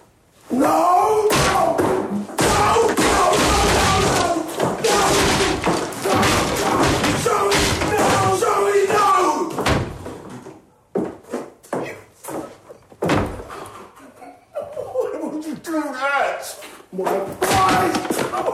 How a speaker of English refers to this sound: He smashes up a door pretty well there.